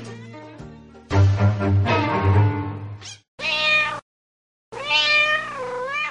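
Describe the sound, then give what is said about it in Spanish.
A fat cat with huge whiskers meows loudly, three drawn-out cries separated by short pauses, the last one rising and wavering, over a faint low hum at the start. “Finalmente salió al encuentro de la ratita un gato gordo de bigotes enormes.”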